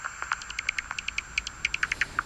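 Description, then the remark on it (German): Rapid series of short clicking pops from a bat detector that makes the ultrasonic echolocation calls of bats, above 20 kilohertz, audible at Melaten: about a dozen evenly spaced ticks speeding slightly, over a steady faint hiss and a thin high whine. “Dabei hat er dann einen Fledermausdetektor, der ihre Ultraschallsignale hörbar macht.”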